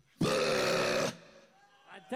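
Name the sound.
long burp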